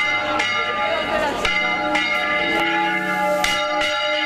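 Church bells ring out in a peal, struck in quick, irregular succession so their rich metallic tones overlap and hang in the air, loud throughout.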